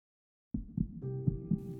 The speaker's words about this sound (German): Und jetzt fühlt mal euren Herzschlag. Moment.